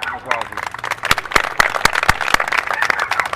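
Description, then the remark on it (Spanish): A burst of audience applause for a young basketball player, dense overlapping claps with a few sharper individual smacks standing out, steady and fairly loud throughout, with faint voices mixed in underneath. “yo creo que ese, ese, chamaquito merece un aplauso, vamos allá.”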